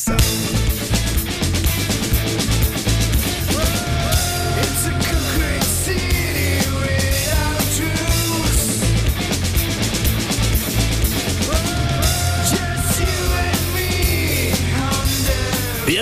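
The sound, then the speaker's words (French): Loud, full rock band music plays throughout, with driving drums keeping a steady beat under bass and guitars, dense and continuous from start to finish. “Et qu'on entend la batterie. C'est moi qu'on entend la batterie.”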